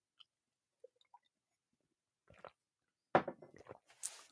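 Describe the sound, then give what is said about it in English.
A sip of hot coffee: a few faint mouth clicks, then a brief slurp and a louder wet gulp and swallow, with no talking. “And so with this morning's devotional, let me just take another sip, last sip of my coffee, actually.”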